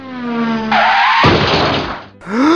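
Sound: car skidding and crashing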